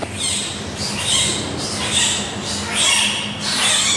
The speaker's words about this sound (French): on entend un cri. Le deuxième panda est né et semble beaucoup plus vif que le premier.